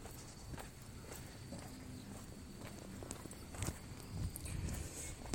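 Footsteps walking at a steady, moderate pace, each step a soft distinct tap against a background of low ambient noise, with no talking.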